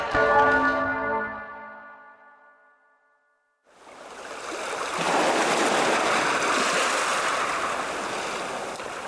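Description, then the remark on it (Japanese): A large bell rings out joyfully over a harbor town with rich, lingering harmonic tones that fade into silence, followed by the steady wash of surf and harbor ambience rising in the background. “やがて、一年と一ヶ月の月日が何事もなく流れ、港町に楽しい鐘の音が鳴り響いた”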